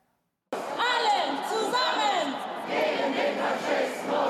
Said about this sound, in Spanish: Todos juntos contra el fascismo, un grito claro que se ha podido escuchar en el centro de Frankfurt durante este sábado.